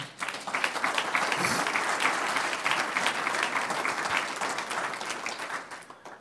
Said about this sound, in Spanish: ¿Cuántos dicen gloria a Dios? Un aplauso al Señor.